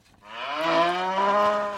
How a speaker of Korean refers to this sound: 소 울음소리입니다. 나 착해 하는 것 같죠? 예, 아주 착한 소울음소리.